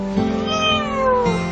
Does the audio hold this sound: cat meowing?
yes